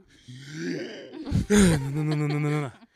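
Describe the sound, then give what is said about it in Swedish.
A voice imitates gasping for breath: a strained, groaning vocal sound, then a sharp, noisy intake of air and a long, drawn-out voiced exhale, fairly loud. “Man blir jätteandfådd ja.”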